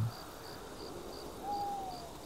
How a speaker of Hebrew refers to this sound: והמהום ינשוף נשמע מרחוק.